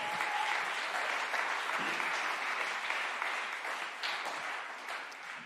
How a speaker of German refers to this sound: Applaus